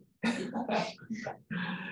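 A small dog lets out three fairly loud whiny vocal bursts in quick succession, the first longest and wavering, with a short gap before the last steady one.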